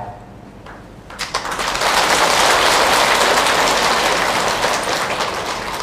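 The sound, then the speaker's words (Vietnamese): Applause from an audience swells after a quiet first second into a dense, loud, steady crackle of many hands clapping, holding strong to the end with no voices over it. “vỗ tay quý vị đã vỗ tay này đó là một lá thơ um, rất đáng được tán dương”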